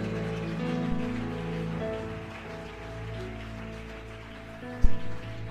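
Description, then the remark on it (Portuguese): An audience applauds the Lord loudly and steadily, a dense crackling wash of clapping over sustained musical tones, with a sharp thump near the end. “Aplauda ele bem forte.”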